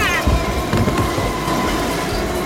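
A train rumbles loudly and close by, with a steady low roar of wheels on rails and a bright sustained tone riding above the clatter for a few seconds.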